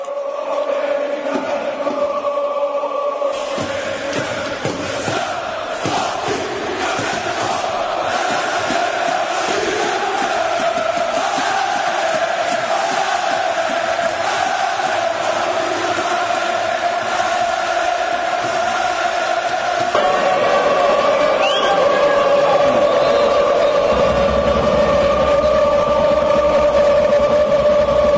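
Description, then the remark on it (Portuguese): A large crowd of football supporters sings in unison a chant that Atlético Paranaense supporters also have a version of, also sung by Fluminense. It is loud and sustained, the massed voices holding a steady melodic line with a rhythmic pulse throughout. “Outra música que a torcida do Atlético Paranaense também tem uma versão.”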